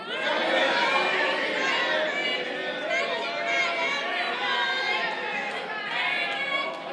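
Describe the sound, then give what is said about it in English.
An audience shouts overlapping answers all at once after a count of three, such as asparagus, pumpkin pie, lasagna and mashed potatoes, a dense, loud jumble of many voices calling out different answers together for several seconds with no single voice standing out. “And you have to yell it out so I can actually hear it.”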